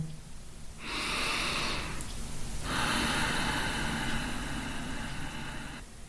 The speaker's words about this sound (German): Machen Sie mit. Tief einatmen, lange ausatmen und vielleicht machen Sie dann eine kleine Atempause.